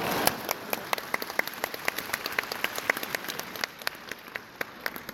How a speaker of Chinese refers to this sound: 鼓掌